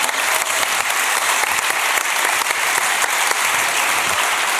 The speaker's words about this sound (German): Und jetzt Auf noch kurz Applaus. Alles Gute.